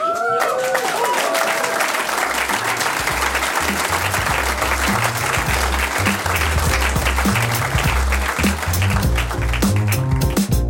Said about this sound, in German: Wie findet man ein gutes Ende für eine Sendung? Oh. Applaus.